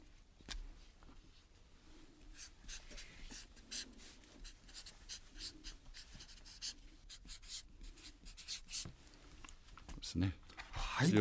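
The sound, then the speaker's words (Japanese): A pen scratches across a shikishi board in quick, irregular strokes, with brief pauses between marks, while soft murmuring voices sit low in the background. A guest, a political commentator, writes his dream for five years ahead, 'lifelong active' (shogai geneki), on the board. “どうぞそちらの色紙にお書きくださいませ。”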